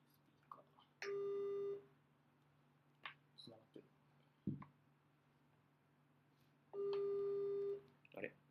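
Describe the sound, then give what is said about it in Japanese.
A telephone ringback tone while a call is being placed to footballer Hugo Vieira of Gil Vicente: two steady, buzzing tone bursts about five seconds apart, with brief, quiet talking and small noises in the gaps. “ちょっと今電話かけてるんで。”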